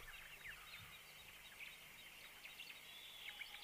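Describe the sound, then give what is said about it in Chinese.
An owl calling in soft, high chirps and twitters, a quick scattered series of short notes repeating throughout, faint and steady with no talking. “哦，猫头鹰在提醒我们别发出声音，吵醒这个可恶的魔法师。”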